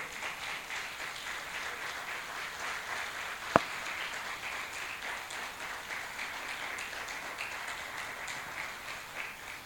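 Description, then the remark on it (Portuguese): A crowd applauds steadily as applause for the Lord, a dense wash of many hands clapping, with one sharp louder clap standing out partway through. No one speaks. “Eu quero um aplauso para o Senhor.”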